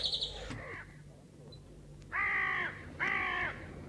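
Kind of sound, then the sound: bird, raven cawing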